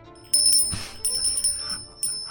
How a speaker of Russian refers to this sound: Вот это вот. У меня есть колокольчик.